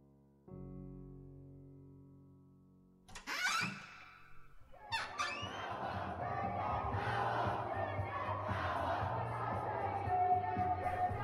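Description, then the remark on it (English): A low sustained tone gives way to a large crowd of protesters on a strike march over a school science law, shouting and chanting slogans together, a dense, loud roar of voices that builds and keeps going steadily. “When I walked out of editing room, a strike march was taking place on the school science law.”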